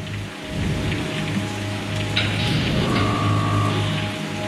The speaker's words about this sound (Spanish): El 2 de mayo de 1961 llueve sobre Cabo Cañaveral.